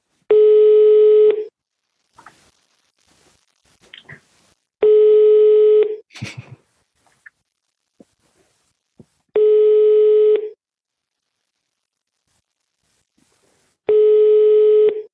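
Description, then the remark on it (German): A telephone busy signal heard when calling a company: four loud, steady tone bursts of about a second each, separated by longer gaps with faint clicks and brief noises in between. “Wir können mal überlegen, wenn ich heute mal Unternehmen anrufe, wie klingt es denn da eigentlich? Ruf einfach mal an.”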